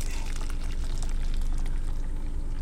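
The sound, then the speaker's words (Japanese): A steady stream of coffee pours into a cup for a few seconds, a continuous gurgling splash with no talking over it. “まずはコーヒーを入れて”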